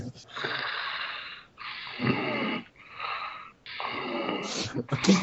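Loud, raspy snoring close to the listener, four long rough breaths in a steady rhythm with brief pauses between them and no talking.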